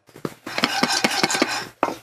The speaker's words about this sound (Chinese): 有节奏的晃动锅子，让咖啡豆在锅中均匀受热。十多分钟后，咖啡香果然从锅子里窜了出来，一颗颗咖啡豆更加黝黑。